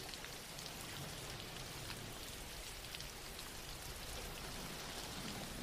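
Steady rain falls in a continuous, even hiss with a dense patter of drops, holding a constant level for the whole stretch with no voices or other sounds.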